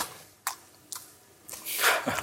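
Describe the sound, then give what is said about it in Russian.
A voice imitates the loud chewing Napoleon makes when eating boiled horse meat: a few sharp, wet lip smacks spaced apart, then a denser burst of squelchy mouth noises. No words are spoken. “И чавкает, да?”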